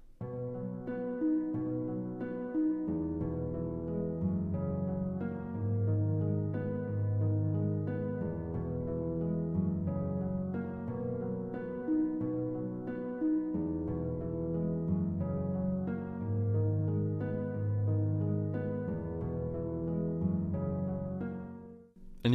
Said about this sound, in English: Um, and you know, we're in major now, so the entire the mood of the piece I think is a bit different at this point. Um, and I changed the harp arpeggios. So now let's just listen to the harp arpeggios. They sound like this.